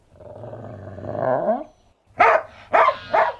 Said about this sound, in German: Und damit das klar ist, der Hund gehört Ihnen.